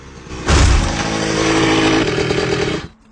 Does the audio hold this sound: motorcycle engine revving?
yes